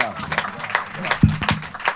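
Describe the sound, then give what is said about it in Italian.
An audience applauds a doctor in a steady, dense wash of clapping, with a few voices calling out over it partway through. “Facciamogli un grande applauso, eh,”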